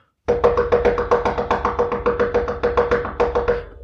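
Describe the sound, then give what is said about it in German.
Rapid, steady tapping, about fifteen quick knocks in under four seconds, fairly loud, mimicking a mother hanging upside down at an attic hatch and hammering her head inhumanly fast against the door. No one speaks. “und sie wirklich unmenschlich in dem Affenzahn ihr, ihren Kopf gegen die Tür hämmert, so.”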